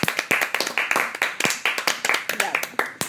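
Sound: hand clapping applause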